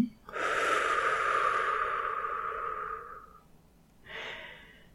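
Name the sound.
slow exhalation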